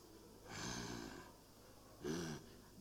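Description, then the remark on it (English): A person imitates the snort a lion makes while sneaking up on prey, not its roar, with two breathy, rasping bursts: a longer huff first, then a shorter, louder, throatier one about a second later, fairly quiet, with no talking. “they freeze when they hear the, the, the lion makes that noise. Eh, that's not the roar, ne?”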